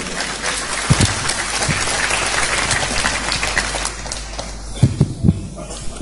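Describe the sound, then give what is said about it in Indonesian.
Audience applause fills the whole stretch, a dense steady patter of many hands clapping with a few louder claps standing out near the start and end, easing slightly toward the close. “dan saya mungkin tepuk tangan semua”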